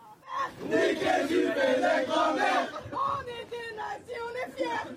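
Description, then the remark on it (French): A group of young people chants antisemitic words loudly in unison inside a Paris metro carriage, in a video shared on social media, their raucous voices rising and falling in a steady rhythmic pattern that continues without pause. “Dans cette vidéo diffusée sur les réseaux sociaux, un groupe de jeunes chante des propos antisémites dans une rame du métro parisien.”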